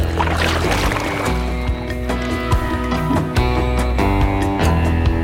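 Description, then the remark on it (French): A canoe moves through marsh water on the island of Salerten in the Vendée, France, along the salt route, paddle strokes splashing and knocking at an irregular rhythm, with a steady low hum and watery sloshing underneath. No one speaks. “On va prendre un canoë pour embarquer sur la fameuse route du sel.”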